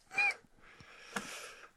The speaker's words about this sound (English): Uh, says the security cat. Yeah, Caesar the security cat made a guest appearance there.